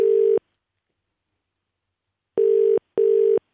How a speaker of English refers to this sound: That's one ring. Two rings. Three rings. Come on, pick up. Four rings. It needs to be answered now. That's the fifth ring.